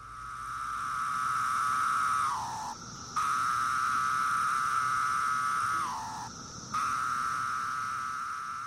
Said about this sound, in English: The three species of cicadas each have their own jam. And so, one of the most common on the East Coast is the really mellow sound, and it sounds like a low whistle.